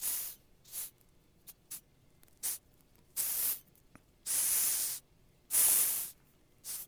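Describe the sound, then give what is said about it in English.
A Madagascar hissing cockroach hisses in a series of bursts: short quick puffs at first, then longer, louder breathy hisses, with no talking. “here's here's an audio sample of what the hissing cockroach sounds like.”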